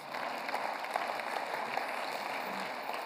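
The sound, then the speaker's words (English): An audience applauds two guys steadily for about three seconds, a dense, even wash of many hands clapping with no voices standing out. “Give these both these guys a big round of applause.”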